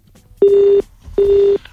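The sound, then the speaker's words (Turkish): A telephone connecting tone as another phone call comes in: two steady, identical electronic beeps, each lasting under half a second with a short gap between, clear and fairly loud, with no one talking. “Bir telefonumuz daha var.”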